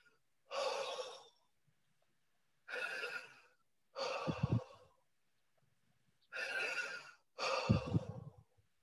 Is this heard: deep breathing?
yes